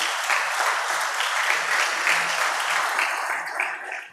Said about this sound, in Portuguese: Dê uma linda salva de palmas para o Senhor.